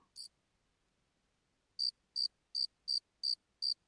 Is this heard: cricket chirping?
yes